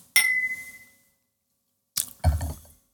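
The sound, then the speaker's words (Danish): A single bright clink of glasses rings out in a toast and slowly fades, followed a moment later by a short burst of soft clattering or sipping noises. No one speaks. “skal vi ikke lige starte med at sige skål”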